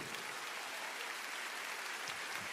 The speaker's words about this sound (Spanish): Alguien tiene que aplaudir al Señor por eso. Alguien tiene que decir, ese es mi Dios. Aleluya.